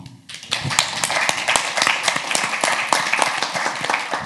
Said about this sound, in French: qu'on peut applaudir chaleureusement.